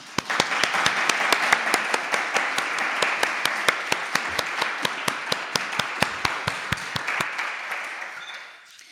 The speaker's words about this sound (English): And I think we owe them a round of applause.